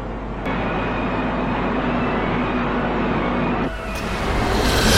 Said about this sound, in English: train lines are particularly bad, but we're, we're purposely next to the train line today